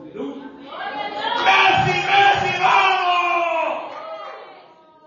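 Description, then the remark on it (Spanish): A large church audience shouts praise to the Lord together in a loud, sustained roar of many voices. It swells for several seconds, then tapers off, with no single speaker standing out. “Grítale alabanza a Él como tú le gritas al pollo.”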